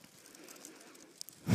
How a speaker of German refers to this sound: Ich liebe euer Knistern vom Popcorn.